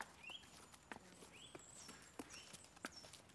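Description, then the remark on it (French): Irregular, unhurried hoof thuds and shuffling steps of horses moving slowly about outdoors as they graze, with birds chirping faintly in the background. “Le jeu est fini. Les chevaux broutent.”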